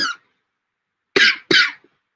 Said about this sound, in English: I got I got the coughs. I can't talk no more. I have to talk in a high pitched voice in order not to cough.